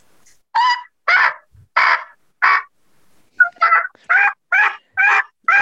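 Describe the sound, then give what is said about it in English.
A series of raspy turkey yelps made on a latex diaphragm mouth call using the middle of the tongue, about nine evenly spaced notes in two runs with a short pause between, loud with no talking. “If you use the middle of your tongue, it's going to sound like this.”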